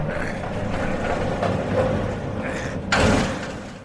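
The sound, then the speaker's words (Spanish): The heavy main door of an empty former sanatorium grinds and scrapes as it is pushed open with effort against a rumbling background. It ends in a loud resonant thud that echoes through the empty corridors, and deep silence follows. “Con algo de esfuerzo conseguimos empujar la pesada puerta principal, que parece estar anclada al suelo el sonido al abrirla resuena por todos los pasillos del vacío edificio, y tras ello, un profundo silencio vuelve a apoderarse del lugar.”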